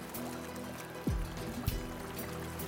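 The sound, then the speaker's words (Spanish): The Anzu River flows steadily at the Gavilán del Anzu community in Pastaza province, in the Ecuadorian Amazon. It makes a soft, continuous rush and gentle trickling, heard fairly quietly with no voices, while a couple of brief splashy gurgles break the even wash. “Estamos a orillas del río Anzu, en la comunidad Gavilán del Anzu, en la provincia de Pastaza de la Amazonía ecuatoriana.”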